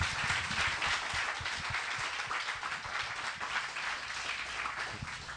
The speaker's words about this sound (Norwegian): Klapp for Tove Jansson. Klapp for Tove Jansson.